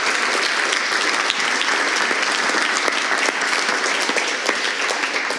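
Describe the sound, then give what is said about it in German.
Sustained audience applause, a dense crackle of many hands clapping at an even, steady loudness for several seconds with no voices standing out. “Genau, Applaus.”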